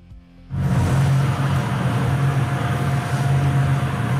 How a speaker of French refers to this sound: la VMC de son immeuble fait tellement de bruit qu'il en devient fou